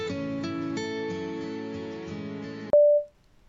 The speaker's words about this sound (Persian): تلفنم زنگ میخورد.